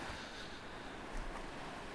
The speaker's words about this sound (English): Can you hear the waves coming in?